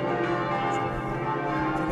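Church bells ring loudly and continuously, their overlapping metallic tones forming a dense, sustained clangor that fills the space without any voices.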